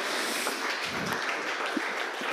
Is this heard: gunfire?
no